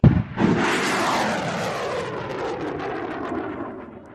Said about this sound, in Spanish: Así que vamos a abrir de par en par las ventanas del alma, que ya hemos calentado los motores de este transbordador espacial y en la torre de lanzamiento sigue a los mandos